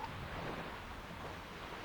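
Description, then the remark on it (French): A soft, steady wind blows with a constant, gentle rush and no gusts or pauses, low in level, across a desert where the air is filled with sand; no voices are heard. “L'air lui-même était empli de sable et il y avait un vent qui était doux,”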